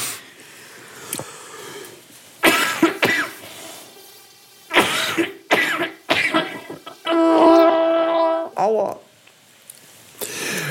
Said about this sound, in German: Ich will nicht so viel husten.